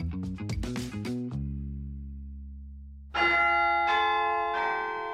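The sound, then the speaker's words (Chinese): A school bell chime rings for the end of the last class on a Monday afternoon: a quick cascade of ringing tones, a long low hum, then three bright, resonant strikes that ring out and slowly fade. “星期一下午，最后一节课的下课铃声响起”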